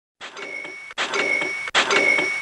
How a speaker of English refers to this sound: Oh, yeah. I love that sound. That is the sound of another sale on Shopify, the all in one commerce platform to start, run, and grow your business.